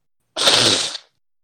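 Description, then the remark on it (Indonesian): A single wet, snotty sneeze bursts out sharply and loudly, a hissy spray of sound lasting just over half a second before cutting off into silence, with no talking. “Hmm, dijawab pakai ingus.”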